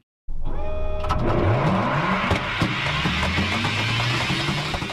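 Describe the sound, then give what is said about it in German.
A hyperloop capsule races through a vacuum tube with a loud, engine-like whine that climbs in pitch again and again in stepped surges, a steady roar filling all five seconds without voices. “Denn so klingt ein Hyperloop, eine Kapsel, die durch eine Vakuumröhre rast.”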